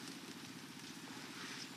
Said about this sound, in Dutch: Het komt van de bivak. De generator daar? Het geluid van de generator. Zijn er mensen die dat nog niet gehoord hebben? Ik. Ja. Goed. Je hebt dat geluid al heel de dag gehoord.